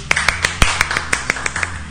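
Scattered hand claps from a small group in a recording booth, sharp, landing in an uneven rhythm for a couple of seconds with a faint hum underneath and no talking.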